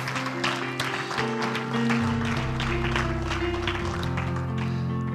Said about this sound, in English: Give the Lord a hand clap of praise in this house today.